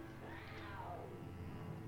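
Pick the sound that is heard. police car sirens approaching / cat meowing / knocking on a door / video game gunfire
cat meowing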